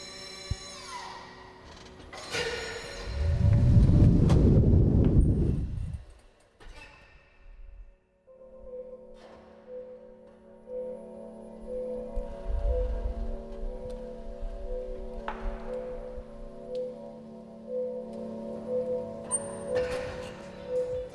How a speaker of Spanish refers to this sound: es algo que tuvieron que crear para los autos eléctricos y fue crearles sonido, porque un problema que comenzó a suceder fue que los autos eléctricos empezaron a transitar, pues al no tener un sonido de motor